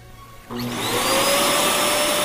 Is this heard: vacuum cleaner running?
yes